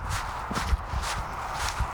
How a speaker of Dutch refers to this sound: Ik zie ze al lopen en rennen over het ijs. En prachtig. Kijk hem gaan. Hij is echt aan het glijden.